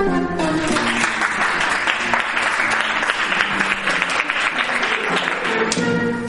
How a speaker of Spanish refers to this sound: Un fuerte aplauso.